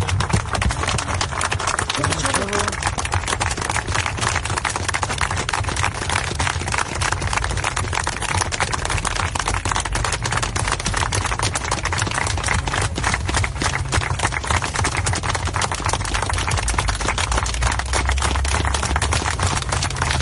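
A minute of applause held in tribute to Hans and Crisop: sustained clapping from many hands, a dense, steady crackle that holds an even loudness for about twenty seconds without pausing, with no voices over it.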